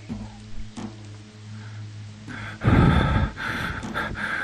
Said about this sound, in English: I can faintly hear the sound of someone or something breathing heavily.